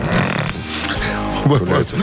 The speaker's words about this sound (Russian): Я просто зевнул. Да, и носом уперся в микрофон.